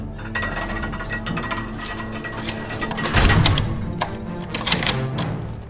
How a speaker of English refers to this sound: In moments, the door and gates to the castle were clinked shut and locked tight.